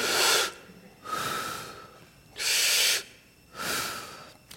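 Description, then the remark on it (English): A person imitates labor breathing, as when coaching a woman through a contraction, with four loud, breathy huffs in a steady rhythm, each a forceful exhale followed by a short pause, with no talking. “Well, this book told me that I'm supposed to help her breathe. So I was like, okay, now breathe with me.”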